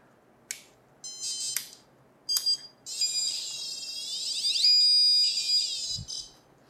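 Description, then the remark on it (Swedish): A REM pod ghost detector, which builds its own field around its antenna and beeps and whines when disturbed, placed in front of a glass-enclosed cage, beeps in short bursts, then breaks into a long, loud warbling whine that wavers in pitch for several seconds before cutting off with a low thump. “Så störs det så kommer det börja pipa och tjuta i den här. Så nu drar jag igång allting och då låter det så här.”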